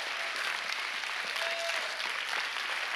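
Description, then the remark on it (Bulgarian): An audience claps steadily during a sermon in a dense, continuous wash of applause lasting the whole few seconds, with no single claps standing out and no one speaking over it. “с това ръкопляскане само ми вземате време от проповедта.”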